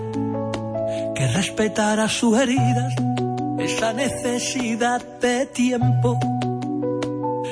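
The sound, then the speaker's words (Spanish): A pop song with a sung vocal melody over steady sustained instrumental chords and a bass line, played loud and continuous throughout. “Bueno, qué bonita canción, ¿eh? Mira, y suena así.”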